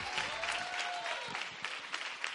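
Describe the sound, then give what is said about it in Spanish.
Sustained audience applause, a dense wash of many hands clapping steadily at fairly even loudness, with a faint tonal sweep in the background early on and no talk over it, for an artistic coach being introduced. “Y un aplauso enorme para la super coach artística que nos hace conectar con nuestro corazón”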